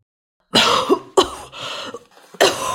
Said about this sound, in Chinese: 过没多久，鬼谷先生受不了呛鼻的浓烟，捂住口鼻就跑出来。他边咳嗽边说